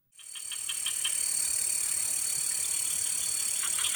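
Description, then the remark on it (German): A dense chorus of crickets and cicadas in a rainforest fills the air, a steady high-pitched drone layered with rapid pulsing chirps that holds constant throughout, with no voices. “Ein Haufen Grillen, Zikaden, zirpen.”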